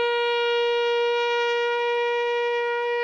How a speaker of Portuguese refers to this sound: Vocês realmente despertam depois disso tudo para uma corneta de guerra, né?